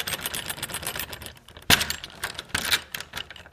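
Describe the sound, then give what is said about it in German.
Small metallic jangling and scraping as a key unlocks a small golden lock on a little wooden box, followed by a sharp click near 1.7 seconds as the lock springs open and another softer clack after, moderately loud with no voices. “Sehr gut, das Schloss springt auf und Sie finden in der Schachtel zwei Sachen.”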